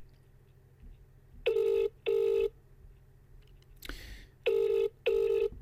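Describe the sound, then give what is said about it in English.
An outgoing phone call's ringing tone, calling a friend who lives in rural Clare at about ten past ten in the evening, sounds twice as a buzzy double ring, each pair of short electronic bursts separated by a pause, with a brief rustling noise between cycles over background hum. “He lives out in the wilds of Clare, so he might not even answer his phone.”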